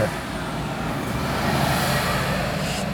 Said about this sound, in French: On va laisser passer le camion.